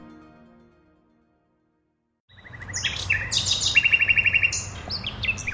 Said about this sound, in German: Die Nachtigallen besingen den April. Aufmerksam lauscht im Berliner Volkspark Friedrichshain eine Gruppe von Frauen und Männern.